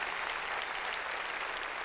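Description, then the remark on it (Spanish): An audience claps loudly in praise of God during a church sermon, a dense, sustained wash of many hands striking at once, steady in volume throughout with no distinct individual beats and no voices standing out. “Démosle palmas fuertes a Él.”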